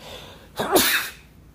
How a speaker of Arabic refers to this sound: بلس يو ثانك يو